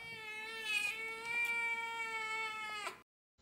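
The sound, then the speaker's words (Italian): A cat lets out one long, strained, croaking yowl, harmonically rich and steady for about three seconds, fairly loud, then cuts off abruptly into silence. “Beh, speriamo che quegli altri non vengano mai fino qua, attirati dal cracra del gatto venuto dalla merda.”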